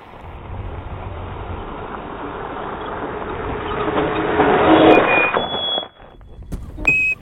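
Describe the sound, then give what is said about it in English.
An electric lunar rover drives on the Moon with a steady, grinding rumble that swells louder over several seconds, thin high squeals cutting in before it drops out and lurches back briefly. “Folks talk shit about electric cars, but this puppy can move!”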